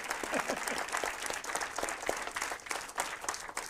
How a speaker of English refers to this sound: First of all, primeramente, give a clap offering to our life a la vida and our death. y a la muerte también.